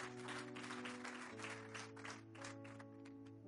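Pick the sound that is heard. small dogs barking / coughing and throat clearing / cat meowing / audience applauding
audience applauding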